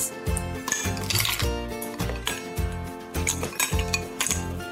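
Ice cubes clatter into a glass holding a large spoonful of mango pulp, while making aam panna, in a quick run of bright, hard clinks and knocks, fairly loud, over a steady rhythmic background with no talking.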